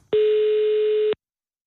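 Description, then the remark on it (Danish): A single steady telephone ringing tone, pitched at the note A, from an outgoing call to a mobile number made by Radio 24 in Copenhagen, Denmark: one clear electronic beep lasting about a second, loud, then silence. No voices. “Så vidt jeg ved, at det er jo en A-tone.”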